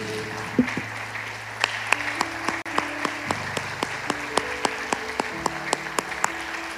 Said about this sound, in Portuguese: Você pode aplaudir o Espírito Santo nessa manhã? Vamos aplaudir o Espírito Santo.